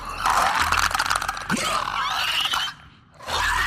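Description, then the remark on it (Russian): A person imitates the growl of a clicker monster, a raspy, gurgling rattle with clicking crackles that runs for about three seconds, briefly drops out, then resumes loudly. “Потом такой останавливается, и вот это его привычное действие, знаешь, да, они так рычат, типа.”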